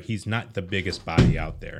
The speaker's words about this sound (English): Sorry, that was my phone falling out of my pocket.